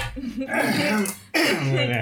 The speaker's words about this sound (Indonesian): terus kalau mau batuk juga ambil sapu tangan pelan